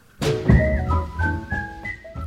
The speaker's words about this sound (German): woher die fröhliche gepfiffene Schlussmusik kommt, die wir am Ende jeder kein Mucks Folge spielen